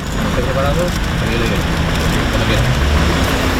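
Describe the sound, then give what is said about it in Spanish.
Steady road traffic rumbles throughout at a Seville Local Police breathalyser checkpoint on the Ronda Urbana Norte in Seville, a dense, even roar with low engine hum, while faint, indistinct voices murmur underneath. “Este era el sonido de uno de los controles.”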